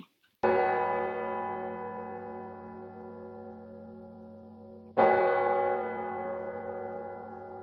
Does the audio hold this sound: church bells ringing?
yes